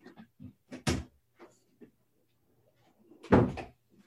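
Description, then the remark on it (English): A door is opened to let a dog out: a few soft knocks and clicks, then a sharper bang around one second, and a louder, rattling thud near the end as it swings and shuts. “that the dog the dog has to be let out”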